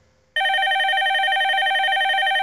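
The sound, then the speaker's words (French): A telephone rings loudly and steadily, its bright, harsh electronic tone with strong harmonics starting abruptly after a brief quiet moment and continuing without pause. “ça que ça sonne fort dans mes oreilles.”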